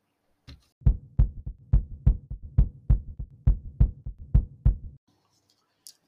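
A heartbeat sound effect thumps in a steady, quick rhythm of paired low beats, about a dozen in all, loud and deep with a faint hum underneath, then stops abruptly.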